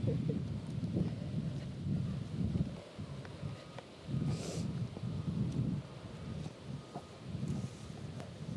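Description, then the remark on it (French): Wind gusts buffet the microphone outdoors on a cold day in low rumbling surges that rise and fall over several seconds, with a brief hissy burst midway and no voices. “Il fait drôlement froid, hein ah Et puis il y a du vent.”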